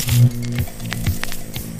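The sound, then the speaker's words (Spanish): Vacuum tubes hum as they switch on: a steady, low electrical drone with stacked harmonics, louder at first, then settling, with a few faint ticks and crackles over it. No one speaks. “La neta, Bulbos encendidos.”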